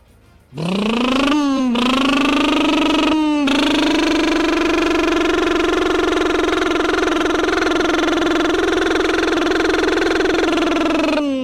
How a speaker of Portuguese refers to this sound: você tava falando lá que tem uma cinquentinha aí que faz até 60 km com litro e o motor dela é bom, né? Ouve só o motor da cinquentinha, ó.